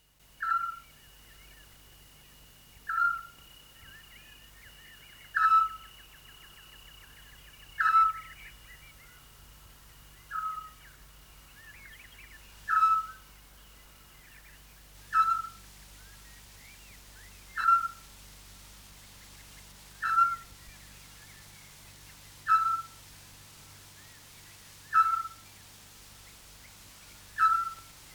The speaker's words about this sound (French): Le Petit-Duc. C'est un hibou, pas plus grand qu'un merle. Il vit dans la nuit. Il dort pendant la journée.